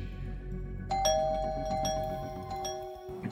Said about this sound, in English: And that's when the doorbell rang, and he opened the door, and there was.